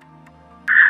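A Skype call line carries a low, steady electrical hum, then a loud, harsh buzz of distortion bursts in for the last third of a second as the call breaks up. Nobody speaks.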